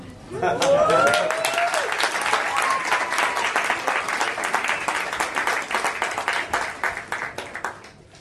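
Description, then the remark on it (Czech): An audience at ICF applauds the band steadily for several seconds, a dense patter of many hands clapping, with a few voices and a whistle-like cheer near the start before the clapping gradually thins out. “Mm, já jsem doufal, že jim zatleskáme třeba.”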